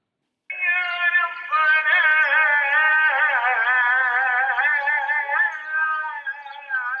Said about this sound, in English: What you're hearing now is a sound that we heard five times a day as the muezzins called the faithful to prayer. It certainly added to the atmosphere of Old Town